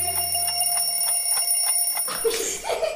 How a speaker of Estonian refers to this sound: ja tiksub kell. on hommikune aeg